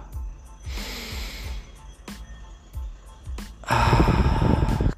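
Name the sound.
imitated gasping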